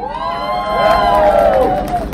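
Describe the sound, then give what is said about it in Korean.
A large crowd cheers and shouts together at a rally against Yoon Suk Yeol at Gwanghwamun, a loud sustained roar of many voices swelling in the middle with high whoops rising above the din. “최근 아마 이 윤석열 집권 이후에 개최되는 각종 집회 중에서 보수 집회 다 포함해서 지금 저희 광화문에는 보수파리들의 윤석열 차량 집회가 지금 벌어지고 있는데 다 합쳐서 오늘 우리가 제일 많은 분들이 모이신 것 같습니다.”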